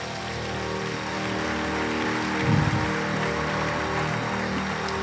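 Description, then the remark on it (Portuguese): An audience applauds, dense overlapping clapping that holds steady for about five seconds, swelling briefly louder midway through, with no one speaking over it. “Vamos dar um aplauso.”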